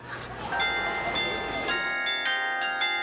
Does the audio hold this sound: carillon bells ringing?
yes